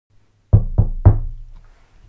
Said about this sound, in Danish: Det var tirsdag, og jeg bankede på min datters dør ind til hendes værelse for lige at høre, hvordan det gik derinde.